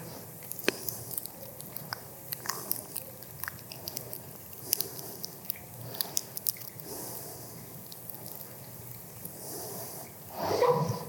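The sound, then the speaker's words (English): Quiet chewing of communion bread during a communion service, with soft biting and squishing sounds scattered irregularly over several seconds, against a low hushed background, with no one speaking. “So we take that bread together.”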